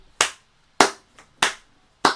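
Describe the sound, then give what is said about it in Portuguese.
A few slow, sharp hand claps for Alan Moore, four loud and one softer, spaced a little over half a second apart with silence between them and no voices. “Uma salma de palmas pro Alan Moore, porque aqui ele tá no seu ápice, o melhor do melhor.”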